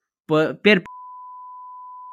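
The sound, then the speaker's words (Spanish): A voice speaks two quick syllables, then a loud, steady censorship bleep cuts in and holds as one unbroken high pure tone until the end. “Puedes poner un pitido de fondo.”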